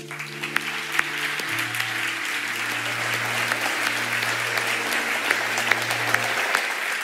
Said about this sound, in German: finde, die Band hat einen Applaus verdient.